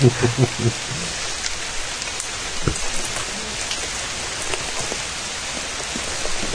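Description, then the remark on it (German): Steady, dense patter of water from lawn sprinkling dripping and splashing down like rain, a continuous hiss of droplets throughout, with a faint voice briefly at the start. “Es tropft jetzt runter, ja.”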